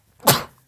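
A single sharp sneeze bursts out abruptly, a loud hissing, explosive rush of breath that fades within a fraction of a second, with quiet before and after.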